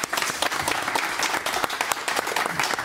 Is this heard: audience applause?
yes